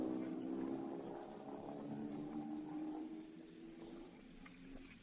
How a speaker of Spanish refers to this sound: Más tarde llega Pilar en su carro hasta la estación.